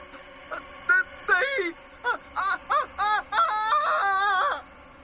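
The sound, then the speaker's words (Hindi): A woman cries and wails in short, gasping sobbing bursts that grow louder and closer together, ending in a sustained, high, piercing cry before cutting to quiet. “नहीं देखते ही देखते कुछ देर में वो रोने और बिलखने की आवाज तेज होती गई और आखिर में एक चीख के साथ सब कुछ बिल्कुल शांत हो गया जैसे कोई तूफान गुजर गया हो”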